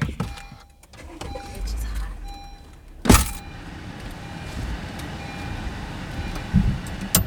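A car engine cranks with a brief, loud burst, then settles into a steady idle rumble that continues to the end.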